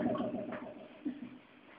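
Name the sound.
bird calling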